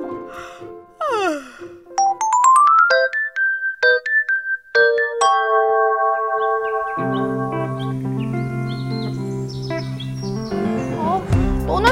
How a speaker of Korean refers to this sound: 아유, 저 녀석 때문에 잠 다 깼네. 아, 근데 저 녀석 알람은 왜 맞춰놓은 거지?